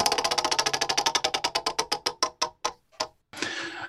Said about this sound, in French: Alors on y va, je lance la roue. Allez, tout dans l'improvisation.